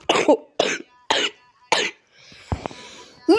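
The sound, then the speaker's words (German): A sick person coughs repeatedly, four harsh bursts in a steady rhythm, followed by a raspy throat-clearing breath and a final cough starting at the end. “Äh, ja, ich bin äh, etwas krank, ich habe Husten.”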